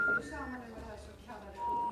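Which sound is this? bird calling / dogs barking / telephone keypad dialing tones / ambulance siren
telephone keypad dialing tones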